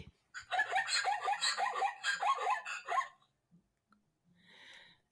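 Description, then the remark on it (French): A zebra call from a children's toy sound book about the savanna: a loud, rapid series of yelping, braying barks lasting about three seconds, followed by a brief faint hissing noise. “Ce serait pas des fennecs Non, c'est des zèbres.”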